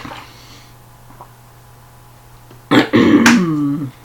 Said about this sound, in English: time for a water break.